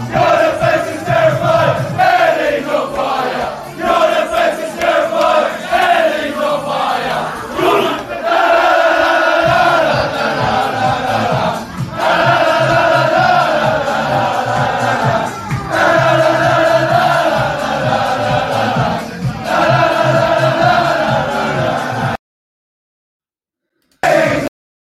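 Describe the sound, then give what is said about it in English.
A large football crowd sings the "Eddie's on fire, your defense is terrified" player chant in unison, loud and sustained with repeated phrases, before cutting off abruptly near the end. “Let's hope we're singing that on uh, tomorrow evening”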